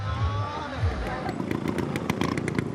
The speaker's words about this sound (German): Hier braust Anissa aus der Vespa-Werkstatt übers Feld. Sie macht im Rennen der Rollerladies den zweiten Platz. Das ist gar nicht so leicht mit einer Vespa, denn das Lenkrad ist nicht sehr beweglich und für Rennen nicht ideal.